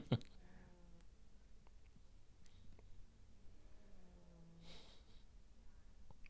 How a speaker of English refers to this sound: Mr. Cat snoring real loud.